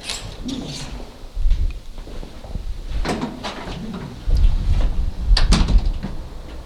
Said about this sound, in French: Et j'ouvre la porte de l'immeuble.